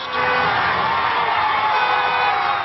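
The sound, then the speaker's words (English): An angry crowd roars against the Westboro church from Kansas and its signs, cheering and shouting together in a dense, unbroken wall of voices that stays loud and steady for a few seconds, with no single voice standing out. “The Westboro signs didn't stay long as a fiery crowd burst.”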